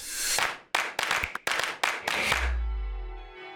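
The large bells of Minden Cathedral in Germany clang loudly several times in quick, uneven succession for a wedding, then one deep strike lingers as a long resonant hum that slowly fades. No voices are heard.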